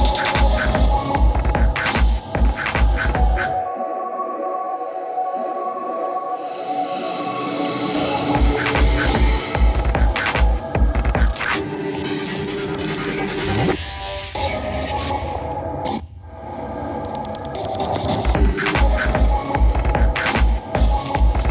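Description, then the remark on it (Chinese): An electronic music track with a thumping kick pulse under dense, buzzy, glitchy synth textures; the beat drops out for a few seconds, returns, and briefly cuts out again near the end. “你们刚才听到的是一段呃治疗情绪抑郁的电子针灸疗法，”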